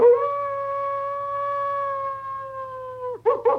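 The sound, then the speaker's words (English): A wolf-like creature lets out a long, loud, pained howl that holds steady for about three seconds, dips, then breaks into two short, strained yelps, after a stake is driven between her rib bones into her chest. No one is speaking. “And she gasps and yowls”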